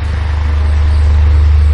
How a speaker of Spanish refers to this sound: Bueno, es el ruido de un ventilador